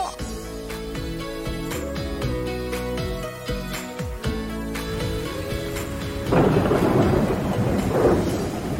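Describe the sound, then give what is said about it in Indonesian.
Steady rain hisses and patters alongside deep rumbling thunder, growing louder and denser in the last few seconds after a stretch of sustained tonal, music-like sound. “Eh, tadi janjian ke atap, tapi ini hujan.”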